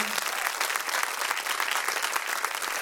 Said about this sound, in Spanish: Amén y amén. ese aplauso bien fuerte a su Señor.